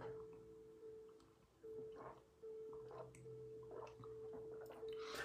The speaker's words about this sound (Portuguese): Deixa eu colocar a música, separe o seu copo com água, a sua garrafinha com água, para que nós possamos fluidificá-la. Deixa eu beber um pouquinho da minha.